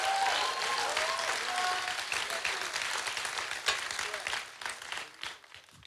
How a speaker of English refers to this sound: Come on, if you believe it, let's really give God a big round of applause.